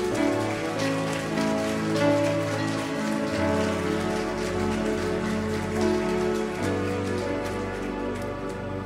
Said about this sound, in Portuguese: Você quer aplaudir? Vamos juntos.